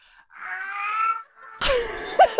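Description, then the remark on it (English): Someone imitates a barn owl's screech: a drawn-out, wavering wail, a brief pause, then a harsh, hissing rasp that ends abruptly. “But also, remember that like they might be making this noise as they are swooping over you.”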